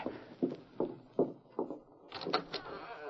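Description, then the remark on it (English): A door is opened to answer someone coming to it: a few evenly spaced dull thumps give way to a brief rattle and scrape of the door swinging open. No one speaks. “I'll stand right here and hit him with this gun butt when you open it.”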